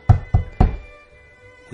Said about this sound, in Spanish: Vamos, vamos a llamar a la puerta,